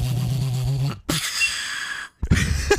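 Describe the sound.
A voice attempts beatboxing, opening with a wet, buzzing lip noise that sounds like a juicy fart, then two short bursts of breathy, hissing mouth sounds separated by brief silences.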